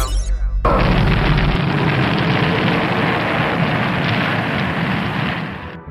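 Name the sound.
rocket launch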